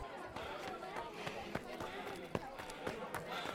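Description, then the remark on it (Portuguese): Quick, uneven thudding footsteps as two children run off across the floor, the sharp steps standing out over a busy background of murmuring voices. “Os dois saem correndo e Maria Antônia os acompanha”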